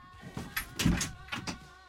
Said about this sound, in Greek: κλείσει την πόρτα, βρε.